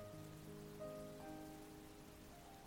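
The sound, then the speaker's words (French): Water pours steadily from a watering can onto a seed in a garden, in a soft continuous trickle, with gentle sustained musical tones humming beneath it. No one speaks. “Tu entends couler l'eau sur ta graine du présent.”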